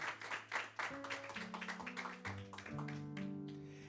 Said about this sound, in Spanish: Alguien le da un aplauso al Señor que lo entendió.